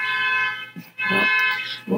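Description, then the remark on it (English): A car alarm blares with a harsh, buzzing electronic tone, loud and sustained, cutting out briefly partway through before resuming. No one speaks. “a ghost just set off a car.”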